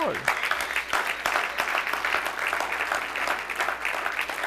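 An audience claps steadily for several seconds in applause to the Lord after a man has been given his own security company, a dense, bright patter of many hands with sharper individual claps and a few cheers rising through it, holding at an even loudness throughout.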